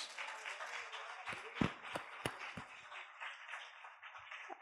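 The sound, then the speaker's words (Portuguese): An audience claps together to applaud the name of Jesus, a dense patter of many hands with a few sharper, louder claps standing out, steady for several seconds with no talking. “Eu quero aplaudir o nome de Jesus pela vida dos irmãos.”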